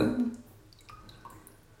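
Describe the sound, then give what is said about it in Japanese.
Water drips from a shower head in a bath in soft, irregular plinks, about five or six faint drops landing one after another, quiet and echoey. “このポタポタしてる音って聞こえます”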